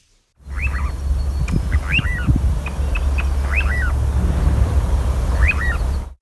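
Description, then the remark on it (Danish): A little ringed plover gives four short, clear, down-slurred whistled calls at uneven intervals, standing out over a steady low rumble of background noise, with a few faint clicks in between. “han har en lyd, som jeg tror er en lille præstekrav.”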